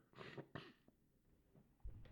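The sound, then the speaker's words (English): Two sharp, breathy snorts, followed by a few softer sniffles and a short thick nasal sound near the end. No one speaks. “forgive all this disgusting like snorting and sniffling I'm doing”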